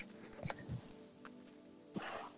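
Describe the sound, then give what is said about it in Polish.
A dog makes quiet, scattered noises in a room: a few short bursts and soft chewing or snuffling sounds spread over a couple of seconds, with no one talking. “Tak, pieseł jakby zaczął.”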